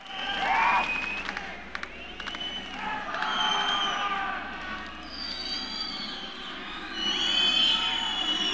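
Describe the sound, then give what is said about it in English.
A large crowd roars and cheers continuously, with shrill whistles rising above the din, dubbed into a studio music recording. The noise stays loud and dense throughout, swelling slightly near the end. “It's a studio track with crowd noise dubbed in.”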